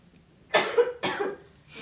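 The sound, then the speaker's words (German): A sick girl lying on a sofa coughs twice in quick succession, two harsh, breathy bursts, followed by a faint start of a third. “Huste mal, huste mal richtig ab.”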